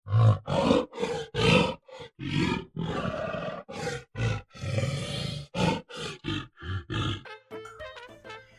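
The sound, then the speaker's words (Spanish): A gorilla roars and grunts in a rapid string of loud, rough, throaty bursts, pausing briefly between each, before breaking into a few higher, more tonal cries at the end. “y al día siguiente, cuando fue a buscar a Baker a su casa y abrió la puerta, se encontró un enorme gorila.”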